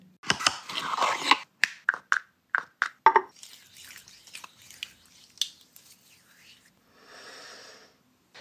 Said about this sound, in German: Wie sich das Rosenpflegeöl anhört, das kommt jetzt.